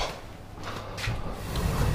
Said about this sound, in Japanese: なんだすいませんちょっと隣の部屋がうるさかったんでドアドアを閉めましたという感じなんですが